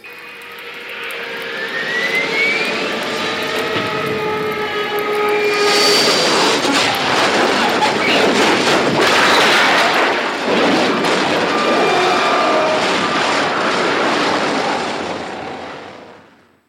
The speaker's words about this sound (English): 2,000 feet. Engines are giving out. No chance to release bombs. Only one thing left. Drop on them, plane and all. We're diving on the first one. Now the engine's gone.